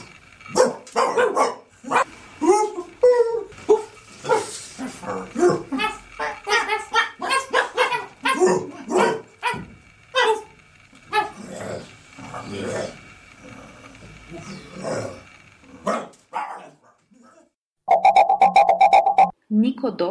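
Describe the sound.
Two people trade imitation dog barks back and forth in a lively exchange, short yaps and woofs overlapping closely, followed by a sustained, steady tone near the end.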